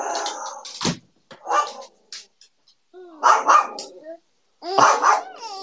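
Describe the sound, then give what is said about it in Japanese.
A Pomeranian dog barks in several loud bursts, sharp yelps with harmonic whines between them, separated by short pauses, with a little background voice mixed in. “犬もおられるんですね。”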